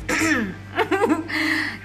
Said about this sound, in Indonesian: Gila nih gue udah dehem lima kali.